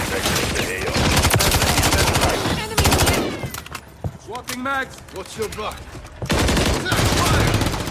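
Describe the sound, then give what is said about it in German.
Loud, rapid machine-gun fire from a video game rattles in long sustained bursts during a short, action-packed match, breaking briefly midway for shouted voices and scattered shots before the heavy automatic fire resumes. “Das Movement, das Ballern, Animationen, Trefferfeedback, Sound, das ist alles richtig auf den Punkt.”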